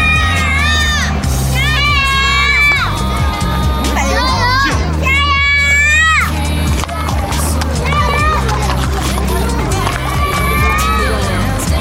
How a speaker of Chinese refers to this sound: 又可以听到小朋友的声音了。